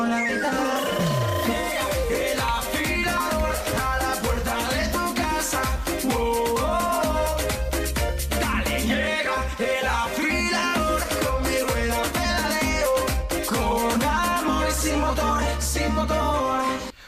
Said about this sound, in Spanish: Por ahora, nosotros lo que hacemos es quedarnos con el estribillo del afilador, que va a ser el temazo del momento, porque suena así de bien.